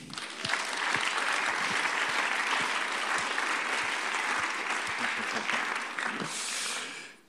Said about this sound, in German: Das, die machen einen richtig guten Job hier. Lass uns ihm mal einen Applaus geben.